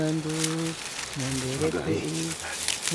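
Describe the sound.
Dry straw crinkles and rustles in uneven crackly bursts throughout as it is picked up and placed beside a fire, partly masked by a person talking steadily over it.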